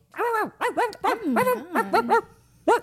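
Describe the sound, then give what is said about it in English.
A person imitates a chihuahua's yappy barking, a quick series of high, pitched yips and whines in bursts, fairly loud, with a short pause before a final yip. “Look, I, could- I could do chihuahuas.”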